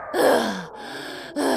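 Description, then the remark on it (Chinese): A big, drawn-out yawn voiced by a person for a big-bellied dragon character in a children's story: a loud breathy rise that slides down in pitch and trails off into a long exhale, ending with a short sharp breath. “克鲁鲁撑着怪兽气球，摇摇摆摆的到了大肚龙的身边，正准备张嘴说话，没想到大肚龙打了一个好大的哈欠，把克鲁鲁的怪兽气球吹到了天边。”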